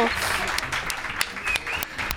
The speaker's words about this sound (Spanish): Venga, ese aplauso para el cookismo.